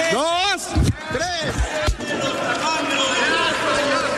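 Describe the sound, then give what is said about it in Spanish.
Several sharp pops as Morena senator Gabriel García Hernández bursts balloons bearing the faces of Vicente Fox, Xochil Gálvez and Felipe Calderón, at uneven intervals amid loud, excited voices and the steady murmur of a crowd, with shouting continuing after the pops. “y los va reventando, ¿no? Y dice por eso, ya se desinflaron, es el sonido que escuchaba”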